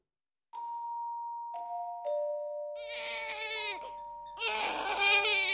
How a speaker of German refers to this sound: Mitten in der Nacht schreit das Baby. Es ist Zeit für den Mitternachtssnack.